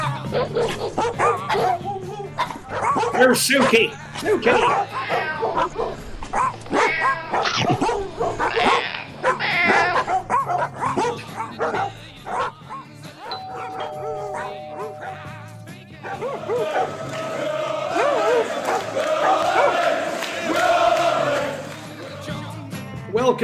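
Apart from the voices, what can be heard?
dogs barking and yipping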